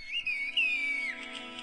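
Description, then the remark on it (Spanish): A high, clear human whistle glides up and down in pitch as villagers in a Turkish village communicate in whistled language, one long modulated phrase followed by softer, fainter whistles, with no talking. “ellos así se comunican en la aldea y, hasta las Naciones Unidas ya eh, pusieron como patrimonio mundial esta aldea turca de verdad porque ellos se comunican a, a chiflidos y la neta está muy chido eh”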